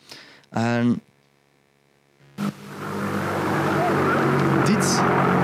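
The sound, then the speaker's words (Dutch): Original recording: after a brief voice and a pause, the harsh, buzzing roar of a V1 flying bomb engine, an unmanned aircraft packed with explosives, starts up, swelling quickly and holding as a steady, loud drone to the end. “is het geluid van vliegen, oorspronkelijke opname.”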